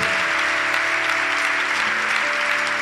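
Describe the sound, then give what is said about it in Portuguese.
Steady, loud applause from an audience clapping for Jesus, a dense wash of many hands clapping at once that holds evenly for about three seconds with no voices standing out. “Se é para Jesus, faz melhor, vai. Se é para mim, não precisa nem aplaudir.”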